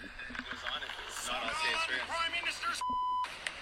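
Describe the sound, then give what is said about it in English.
Muffled, busy speech plays back, then a single steady high-pitched censor bleep cuts in for about half a second before the talk resumes. “I'll play it for you right now because it was bleeped out though.”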